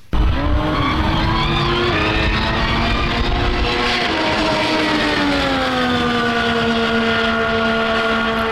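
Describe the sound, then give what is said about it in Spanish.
A Red Bull RB20 Formula 1 car engine, just unveiled, screams steadily, its high, buzzing harmonic tones rising and falling slightly as the revs shift, loud and unbroken with no voices throughout. “hace unos instantes presentaron el RB20 de Red Bull y suena de esta manera.”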